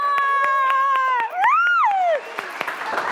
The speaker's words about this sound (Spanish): ¡Un aplauso!